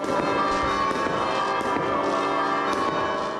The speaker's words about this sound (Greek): Πυροτεχνήματα υψώθηκαν από το λικαβιτό και ουρανός έλαμψε.